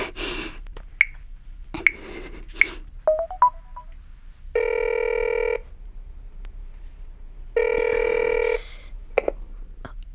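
A telephone being dialed: a few sharp clicks and a quick run of short keypad beeps, followed by two long, steady buzzing ring tones separated by a pause. Nobody speaks.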